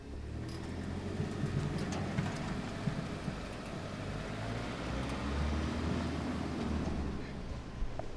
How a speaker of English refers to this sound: It's the first sound I hear every morning the garbage truck going past.